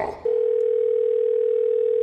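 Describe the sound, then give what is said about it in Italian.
A steady, unbroken telephone dial tone of an outgoing call to an electrician starts after a brief rustle and holds at a constant pitch and loudness, clear, with no voices over it. “Seconda telefonata all'elettricista.”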